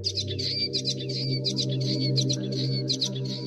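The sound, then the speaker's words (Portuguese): Common waxbills twitter in quick, high-pitched bursts, a busy stream of thin chirps repeating throughout, over a steady low background hum. “De facto, o nome comum da avezinha tem apenas a ver com o seu bico. Chama-se bico de lacre.”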